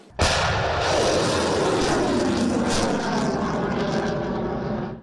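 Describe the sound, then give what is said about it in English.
Anti-ship missiles being fired by Japanese units during a military exercise: a sudden loud blast opens into a sustained, thunderous rushing roar that holds steady for several seconds before starting to fade, with no voices present. “That's the sound of anti ship missiles being fired by Japanese units participating in the exercise.”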